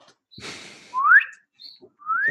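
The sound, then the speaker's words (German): A baby bird chirps twice, each a thin, high call sweeping upward in pitch, after a short rustling burst. The chirps are fairly loud and spaced about a second apart, with no talking. “Wer von euch hat denn das Vogelbaby?”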